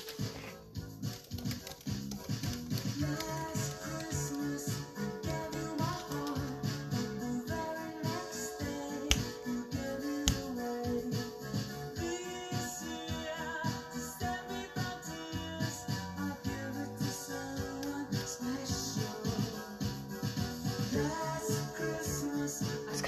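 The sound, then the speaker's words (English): Steady instrumental Christmas music plays throughout at a fairly loud, even level, with sustained melodic tones over a regular rhythmic pulse and no voices. “it's a little bit too loud, the music. So I'm just going to turn it down a little bit.”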